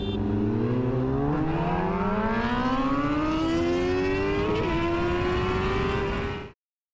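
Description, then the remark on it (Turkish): A motorcycle engine revs hard, its pitch climbing steadily as the rider speeds at high speed, with a brief hitch partway through, before cutting off abruptly. No one speaks. “Geriye tutkun olduğu motosikletiyle çektirdiği fotoğraflar ve aşırı hız yaparken kaydettiği videolar kaldı.”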